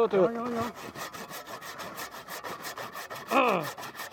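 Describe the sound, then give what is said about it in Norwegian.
A hand saw rasps steadily back and forth through a Christmas tree trunk in quick, even strokes, fairly loud, with brief bursts of a voice near the start and again toward the end. “Hvor mange eh, Juletrær har du saga ned i ditt liv?”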